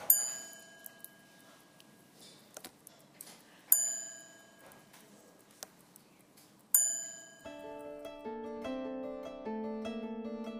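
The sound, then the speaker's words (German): A clock's left hammer drops and strikes its gong spring three times, about three seconds apart, sounding the hourly indication, each clang ringing out and fading over soft ticking, before a sustained, layered tonal chime takes over. “Und jetzt können wir sehen, wie gleich der linke Hammer abfällt und auf die Tonfeder schlägt. Und das ist dann die, die stündliche Anzeige.”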